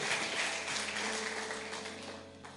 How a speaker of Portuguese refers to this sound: Você entendeu essa mensagem nessa noite? Dê um forte aplauso ao Senhor e se coloque de pé.